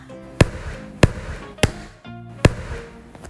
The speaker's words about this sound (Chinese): 如果我生气的时候，就会用力的跺脚，再跺脚，然后再更用力的跺脚，一直到我觉得把所有生气的感觉都踩得扁扁的，就像是这样。